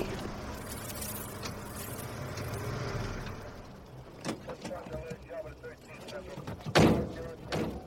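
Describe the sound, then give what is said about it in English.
Heavy, dull thuds strike a locked door at irregular intervals, the loudest landing near the end, over a low rumbling background with faint muffled voices. “What you expect? The door to be unlocked?”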